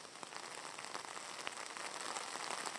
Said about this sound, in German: Jetzt mach erstmal den Regen wieder aus.